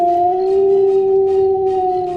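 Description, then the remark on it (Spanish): A wolf lets out a long, steady howl that holds one sustained tone throughout, loud, with faint breathy background noise and no talking. “Aterrados se echaron a correr y el lobo pues ya era todo un lobo con enormes fauces, patas rápidas y un aullido temible advirtió su presencia y empezó a perseguirles.”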